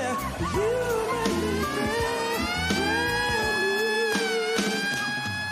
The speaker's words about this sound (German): Das geht so weit, dass manche Künstler oder, oder Talents, Talente, wie man hier so im Apollo sagt, die dürfen gar nicht zu Ende performen, sondern die werden nicht nur ausgebuht, sondern von einer Sirene weggedröhnt. Das klingt dann so.